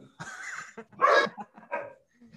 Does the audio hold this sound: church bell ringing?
no